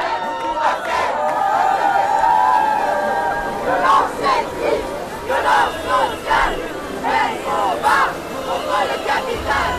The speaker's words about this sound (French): Ce qu'on vient d'entendre, c'est la première marche des fiertés LGBT en Seine-Saint-Denis. C'était il y a trois ans, en 2019.